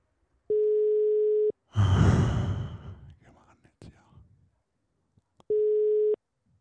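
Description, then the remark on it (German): Two long, steady ringback tones of an outgoing phone call to a friend, about five seconds apart, with a brief breathy rustle and faint murmur filling the pause between them. “ich rufe jetzt äh, den Freund von mir, den Iskander, an. Und der hat vielleicht was dazu zu sagen. Mal sehen, was da so bei rauskommt. Klingelt das Telefon.”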